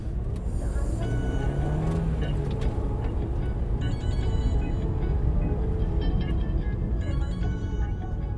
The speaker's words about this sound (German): In seinem Dacia Logan fahren wir ins Karpatendorf Piatra Fontinelle.